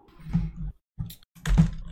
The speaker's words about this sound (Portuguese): Eu tô digitando que nem um animal. Caralho, tá fazendo muito barulho.